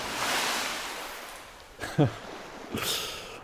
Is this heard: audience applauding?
no